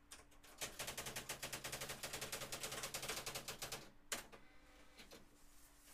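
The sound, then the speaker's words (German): Rapid, evenly spaced mechanical clacks of a working electric typewriter striking keys for several seconds, fairly loud, then a sharp carriage-like clunk and a few scattered taps. No one speaks. “Ich habe eine elektrische Schreibmaschine, ja. Die geht sogar, die ist hier funktionstüchtig.”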